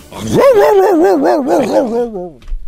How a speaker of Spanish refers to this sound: Pues ya ves que compraron un perro chato. Ahí la tienes. Siempre, nunca falta un perro chato en una azotea. y, esos no ladran, esos, esos no ladran.